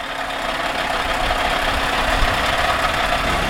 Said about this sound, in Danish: Og jeg står her på flyvepladsen i Trysil med en masse lastbiler, der er på vej ud og ind af, af pladsen.